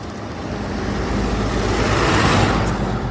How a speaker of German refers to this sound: Jetzt kommt ein Bus. Moment, jetzt bin ich nämlich auf dem Heimweg. Kurz.